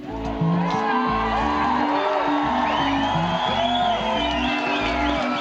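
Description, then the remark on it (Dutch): A packed festival tent crowd at Lowlands cheers and whoops loudly and continuously, many voices rising and swooping over a deep, steady musical bass pulse. “wat de impact kan zijn van een tent vol juichende mensen.”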